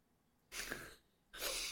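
A soft, breathy yawn: a long airy inhale followed after a brief pause by a second drawn-out breath, fairly quiet and close, with no talking.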